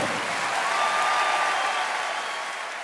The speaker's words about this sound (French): demande d'applaudir très très fort